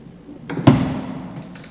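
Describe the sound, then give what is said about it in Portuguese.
A wooden desk drawer slides briefly and closes with a single solid thud after a blank sheet of paper is put inside, its knock fading quickly. “Abriu uma gaveta, pegou uma folha de papel em branco, todo mundo está vendo, bota dentro da gaveta,”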